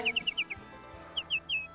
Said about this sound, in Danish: Er det nattergalen? Ja.